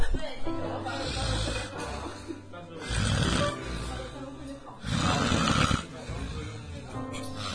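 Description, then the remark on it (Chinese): Loud, rough snoring from a sleeping friend rises and falls in slow repeated breaths, roughly three long snores with raspy low rumbles between them, with nothing else covering it. “呼噜。 我拿这个给大家录一下我们的这个背景音乐。”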